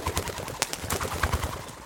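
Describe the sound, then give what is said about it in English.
Pigeons coo in soft, low, throaty pulses that repeat in a steady rhythm, with faint fluttery rustling over a light background hiss and no voices. “Next, she repeated the process with a similar pigeon, named Cody.”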